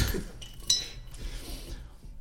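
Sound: beer glasses clinking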